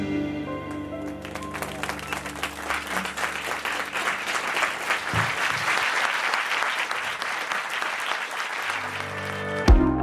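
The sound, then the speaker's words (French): Audience applause rising from a few claps into a full, steady round of clapping lasting about ten seconds, with a tonal hum underneath and a brief sharp knock near the end. “bien sûr qu'elle mérite ses applaudissements.”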